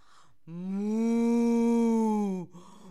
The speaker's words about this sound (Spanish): Y la vaca le respondió